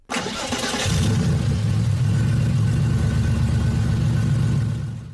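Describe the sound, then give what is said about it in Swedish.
A car's six-cylinder boxer engine catches with a brief whirring start, then settles into a deep, steady rumbling idle, low and loud, with no voices. “boxen med sina sex cylindrar rosslar djupt på tomgång och vrålar gott på högre varv.”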